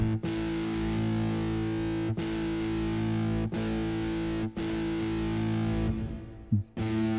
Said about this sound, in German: Also, jetzt haben wir hier eine etwas, ja, eine Clean-Gitarre, also ein bisschen Na, ein bisschen Effekt ist drauf, ne? Also. Ja, klingt auch ganz okay, sage ich jetzt mal.